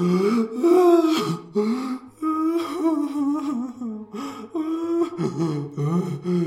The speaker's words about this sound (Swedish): Men du ser att en av eh, båsen eh, är stängt och därifrån kommer det här ljudet. Liksom. Och nu hör du liksom att det, det är typ, det är nog ingen som kvävs, men det är någon som ja, men alltså, gråter, fulgråter.